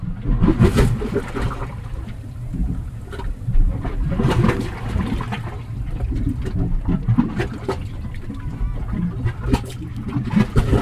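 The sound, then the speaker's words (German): Seawater slaps and sloshes against a large concrete wall in Indonesia, where the sea level is rising, a continuous churning wash with irregular surges and splashes rising and falling throughout, with no talking. “Und es gibt eine große Betonmauer, gegen die das Wasser jetzt immer schwappt.”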